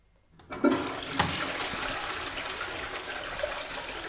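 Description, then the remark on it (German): A toilet flushes, starting abruptly after a brief silence and continuing as a steady, loud rush of swirling water with no voices present. “Wer bei diesem Geräusch das Bedürfnis hat, schnell aufs Klo zu laufen, sollte vielleicht sitzen bleiben.”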